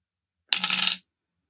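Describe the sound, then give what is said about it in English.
Several dice, rolled for a level-four casting, clatter briefly across a hard table, a quick burst of bright rattling clicks lasting about half a second, fairly loud, then silence. “There'll be more dice because it's at level four.”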